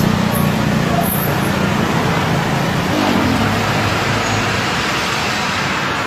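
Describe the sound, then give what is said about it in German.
Steady roar of traffic on a busy evening street in Thailand, cars rolling past continuously, with a faint murmur of voices mixed into the background. “Eine abendliche Straße in Thailand. Autos fahren vorbei”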